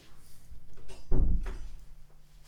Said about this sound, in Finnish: Nyt se jätti tuon oven auki. Mä käyn sulkea tuon oven.